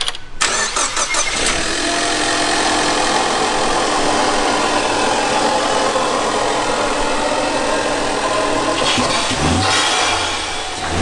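A stock four-cylinder turbo car engine cranks and fires up, then runs loud with a rough, steady idle for several seconds, making a lot of turbo noise, with a brief rev change near the end.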